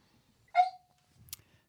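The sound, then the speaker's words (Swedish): A dog named Otto lets out one brief, high-pitched yip or whine that quickly trails off, followed by a faint click and soft rustling. Nobody speaks. “Vem är det som har en hund?”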